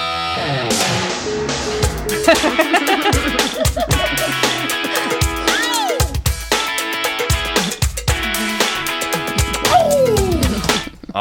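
A loud, busy musical jingle plays for about eleven seconds, layered with gliding, heavily processed synthetic vocal sounds that swoop up and down over a steady beat.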